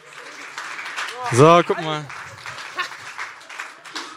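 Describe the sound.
A crowd applauds steadily for several seconds, a dense wash of clapping from an audience, while a man's voice briefly speaks over it near the middle.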